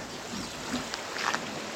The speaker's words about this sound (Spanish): Así amaneció el domingo acá rumbo a Tezopaco. Así están bajando los arroyos. Ve nomás, qué chulada. qué chulada de arroyo lo que lleva de agua.